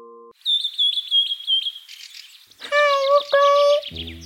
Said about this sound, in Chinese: 知更鸟在树上吱吱吱叫个不停。